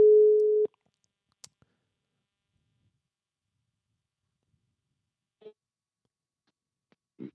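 A short steady telephone ringing tone sounds once while calling out, then a long pause broken by faint clicks and two brief muffled tones near the end. No one speaks.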